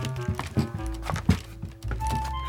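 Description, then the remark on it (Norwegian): Someone climbs a ladder set against a cave wall, with a steady series of five or so hollow, wooden thunks about half a second apart, fairly loud, over a soft sustained musical background. “Fantorangen setter en stige inntil huleveggen og klatrer opp.”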